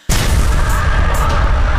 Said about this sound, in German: bitte füg jetzt hier irgendwie so ein Explosionsgeräusch ein.